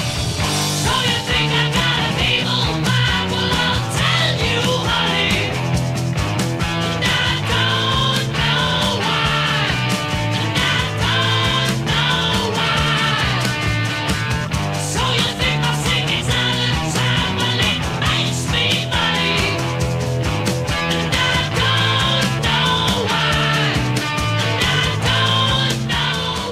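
A loud, dense glam rock recording plays continuously, with a driving full band, pounding drums and a steady stomping beat that fills the whole stretch without pause.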